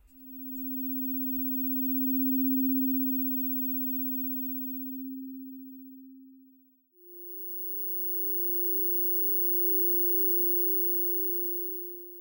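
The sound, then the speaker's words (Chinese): A pure synthesizer sine tone holds steady at a low pitch for about seven seconds, then jumps to a slightly higher note and sustains it, smooth and buzz-free, with no talking. “我就先从这个正弦波开始哦。”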